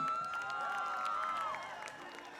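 An audience in a hall claps and cheers steadily for a musical duo being introduced, with a sustained whistle gliding above the dense applause before it eases off slightly toward the end.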